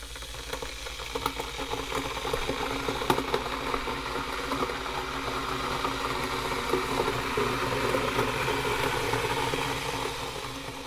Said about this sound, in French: La bouilloire. Faut mettre de l'eau.